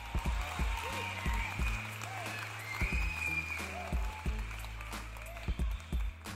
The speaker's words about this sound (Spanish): ¿Quieren aplaudir a Colo Colo? Aplaudan a Colo Colo, dale.